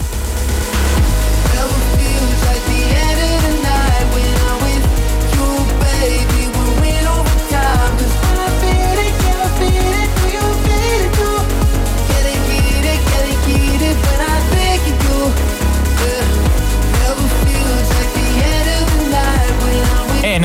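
A loud, dense electronic music track plays continuously, driven by a steady pounding beat, heavy bass and layered synth textures with no voices over it.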